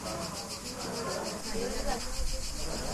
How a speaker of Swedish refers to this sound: Och en jävla massa syrsor här Men vi ska spä på agget. Är det syrsor? Ja, det är det.